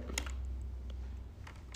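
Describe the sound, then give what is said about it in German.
A few short plastic clicks and taps as a new, flat S keycap is pushed onto a computer keyboard, with a steady low hum underneath and no talking. “Dann packen wir das neue S rein. Das ist schön flach auch.”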